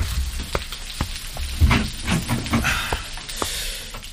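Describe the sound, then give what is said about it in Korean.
A shower runs steadily, a constant hiss of spraying water with scattered splashes and light knocks over it, moderately loud, and no one speaks. “아, 샤워 중이구나.”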